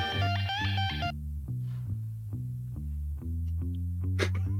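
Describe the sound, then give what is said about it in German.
A deep bass guitar plays a solo line of distinct plucked low notes at a steady, walking pace, fairly loud, with a brief brighter chord at the start and no voices. “Du spielst ein Bass-Solo, das klingt so.”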